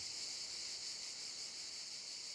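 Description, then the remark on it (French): A steady, unbroken chorus of cicadas in a field beside vineyards, around a Provençal-style hotel with a large garden, fills the air with a high, shimmering buzz that holds constant throughout, fairly soft, with no voices. “Autour, des vignes et le champ des cigales.”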